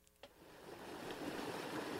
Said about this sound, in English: The Pajaro River is gushing brown and thick. Families are standing along its bank, gazing at the small community of Pajaro, which is completely flooded.